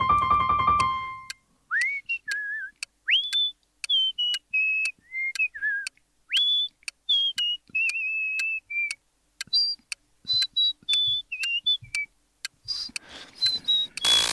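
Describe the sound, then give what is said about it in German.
Someone whistles a bouncy TV theme tune, with short phrases of gliding and sliding notes, each punctuated by sharp percussive clicks or taps. A throat-clearing kind of noise opens it. “Ähm, Toll gepfiffen.”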